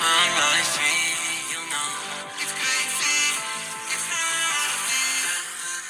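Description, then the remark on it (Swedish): An energetic pop song, last year's Finnish winner of the national song contest, plays loud and steady, a pulsing, repeated bass pattern driving beneath bright, layered melodic parts, with no talking over it. “Där det här är det finska vinnaren av Melodifestivalen.”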